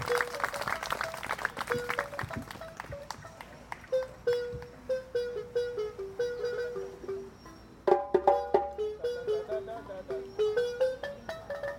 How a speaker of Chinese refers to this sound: 好，给我们用力掌声，耶、yeah!！